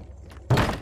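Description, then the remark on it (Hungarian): A single heavy, booming thud as a man throws his body against a wooden door trying to break through it, the wood holding; loud, breaking a short quiet with a dull rumbling resonance that lingers briefly. “Dörrenés. Henton nekirontott az ajtónak, hogy testével áttörjön rajta, de a fa ellenállt.”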